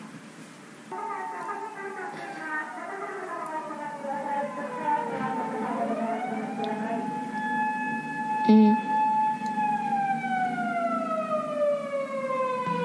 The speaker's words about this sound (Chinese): 不是地震我就跑了，这个是日本日本那个老是最近会有那个救护车经过